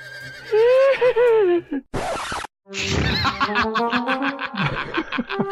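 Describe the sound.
A person imitates a horse's whinny with a wavering, high-pitched voice, then after a short burst of noise lets out a shaky, fluttering neigh. It is loud, and no other voices are heard.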